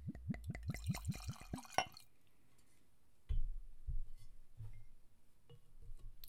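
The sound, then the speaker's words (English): Whiskey glugs out of a bottle into a baseball whiskey glass in a quick, rhythmic burst of about a dozen gurgles, then a quiet pause and a few soft, low thumps. “And I'm pouring into my baseball whiskey glass”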